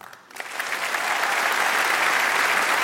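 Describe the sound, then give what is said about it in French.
An audience applauds in agreement with a call for men to stop the street harassment of women, breaking into applause after a brief quiet start, the clapping swelling within a second into a dense, steady, loud roar of many hands that continues to the end. “Applaudis si t'es d'accord avec ça.”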